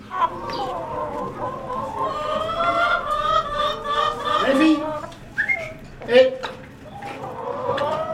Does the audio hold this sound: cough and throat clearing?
no